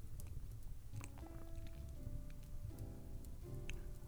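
A fireplace crackles and burns steadily, with dense little pops and snaps over a low rumble, quiet, while soft sustained musical tones hum underneath.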